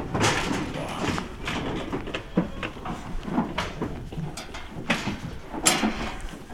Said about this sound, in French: Et là, j'arrive sur une petite route départementale. on est en train de charger des bottes dans le camion.